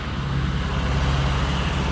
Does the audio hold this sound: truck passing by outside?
yes